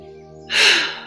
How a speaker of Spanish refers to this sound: Quiero que imaginen que ambos, su niño, su niña y ustedes adultos, tomen una respiración profunda